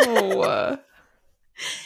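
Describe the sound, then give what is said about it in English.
A voice mimics a woman smoker clearing her throat with a raspy, gurgling rumble, then a pause and a short breathy rasp. Fairly loud, heard on its own. “She was like clearing her throat, like, you know, like it was just oh gross.”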